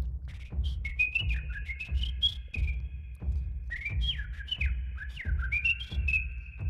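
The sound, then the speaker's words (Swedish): On a sunny, fairly warm day, a person whistles an imitation of great tit song, clear: short repeated phrases of sliding, bird-like notes in two bursts, over a steady low rumble. “Jag kommer nog anta att det är en talg också.”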